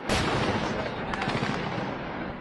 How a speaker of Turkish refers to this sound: Hizbullah, İsrail'in topçu ateşine tank savar füzeleriyle karşılık veriyor.